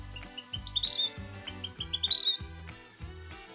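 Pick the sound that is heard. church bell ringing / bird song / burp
bird song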